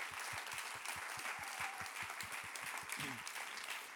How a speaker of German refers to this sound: Und für das möchte ich euch wirklich einen großartigen Applaus geben, weil das ist wirklich eine big, eine big, big Sache.